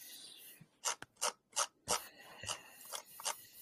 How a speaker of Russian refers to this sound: У тебя колесико мышки сильно хрустит.